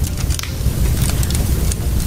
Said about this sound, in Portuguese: Espera um pouquinho, tá? Deixa eu acender uma lareira aqui.